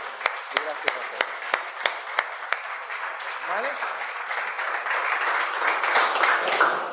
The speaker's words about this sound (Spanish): Con lo cual os voy a dar un aplauso.